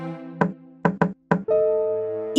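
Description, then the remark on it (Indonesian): Four solid knocks on the wooden door of a rabbits' house in an uneven rhythm, a single rap, then a quick pair, then one more, over a steady musical backdrop that continues afterward. “ia mengetuk pintu rumah kelinci beberapa kali.”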